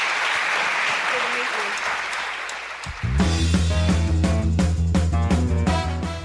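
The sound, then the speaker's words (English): An audience claps in a steady, dense wash of applause for a few seconds, thanking the panelists after a panel discussion, then music abruptly starts and takes over as the clapping fades beneath it. “Please join me again in thanking our panelists.”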